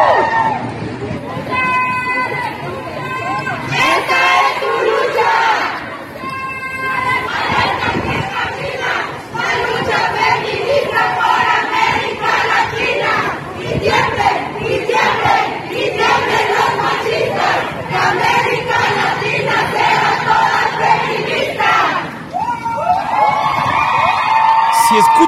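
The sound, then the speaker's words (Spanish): A large crowd of women marching in the streets of Mexico chants slogans in unison, loud, with rhythmic shouted phrases and whoops rising over a dense babble of voices throughout. “lo que pueden estar escuchando ustedes, Oaxaca.”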